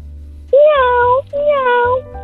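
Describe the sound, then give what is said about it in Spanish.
A child's voice imitates a cat with two loud, drawn-out meows in quick succession, with a brief pause between them and no other talking. “¿puedes hacer el ruido de, de, un, de un gato?”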